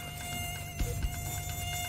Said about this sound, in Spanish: Los espantas, pero aparecen más mosquitos del tamaño de un balón de baloncesto.